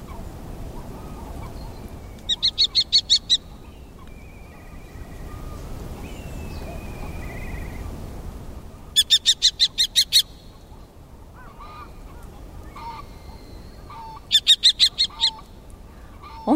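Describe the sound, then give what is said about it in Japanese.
Three bursts of a common kestrel's high, sharp kee-kee-kee calls, each a fast run of about six to eight notes, ringing out clearly over a steady low rumble of outdoor background noise. The common kestrel is a small falcon about the size of a pigeon. “キキキと高く鋭い声長原棒ですハヤブサの仲間で全長はオスがおよそ30センチメスの方が大きくて40センチと鳩くらいの大きさです”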